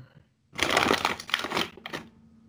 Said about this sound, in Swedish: Man, klick, man klickar under och kommer den här spetsen på pennan fram.